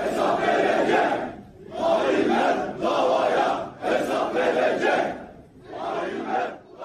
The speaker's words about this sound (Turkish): Geriye Sinan Ateş'in cenazesinde baba diye haykıran evlatları ve cenazeye katılan ülkücülerin manidar sloganları kaldı.